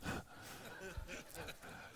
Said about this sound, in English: Bless you.